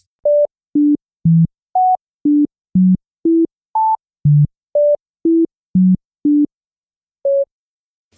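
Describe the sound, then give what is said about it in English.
A scrambled melody of pure electronic tones, about fourteen short beeps in a steady rhythm that leap unpredictably between high and low pitches, with a brief pause before the final tone. “Now that you know the tune, I'm just going to play that first one again and you should have little or no trouble hearing the correct melody.”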